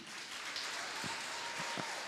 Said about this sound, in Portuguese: Agora eu quero pedir a você que dê um forte aplauso para a nossa equipe de impacto.